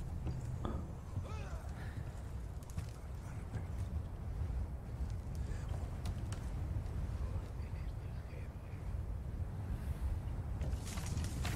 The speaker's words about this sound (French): Parce que là, c'est super beau. Regardez-moi ça. Regardez le vent.